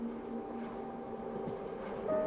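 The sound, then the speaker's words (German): A steady rumble of a train riding along the rails, with a constant low drone and faint tonal hums, growing slightly louder near the end, heard aboard a train travelling through the countryside. No one speaks. “Ich fahre mit dem Zug durch die Landschaften und stelle mir vor, dass ich dort bin, hinter dem Waggonfenster in meiner Heimat.”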